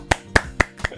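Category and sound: crowd, applause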